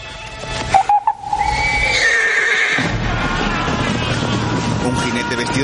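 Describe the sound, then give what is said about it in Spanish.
Horses whinny loudly, with a rising neigh and snorts over a steady rumble of hooves stamping and shuffling on the ground, as riders halt among the trees of a dense forest near carriages. “Los jinetes se detienen entre los árboles del frondoso bosque cerca de los carruajes.”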